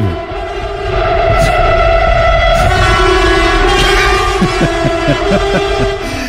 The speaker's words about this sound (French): J'avais posé un, un, klaxon de train avec un compresseur.